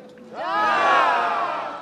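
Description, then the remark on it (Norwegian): A large crowd at a protest rally in Moscow erupts in loud cheering and shouting after a crime writer calls for new elections of the city council and mayor. The cheering is a dense swell of many voices, rising and sustained. “appellerte mannen som Russland svar på Jo Nesbø, til stor jubel.”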